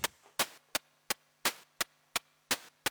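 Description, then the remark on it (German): A simple synthesized drum beat made of white-noise bursts: nine sharp, hissy hits in a steady rhythm, some with longer tails than others, over a faint low hum, with no voices. “hat man halt auch sehr schnell aus so einem Rauschen halt ein sehr, sehr, sehr simples Schlagzeug gemacht”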